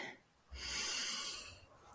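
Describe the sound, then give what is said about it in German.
A single long, airy breath lasting about a second, with a slight wheezy edge before it fades into quiet. “Und atmen. Also wirklich”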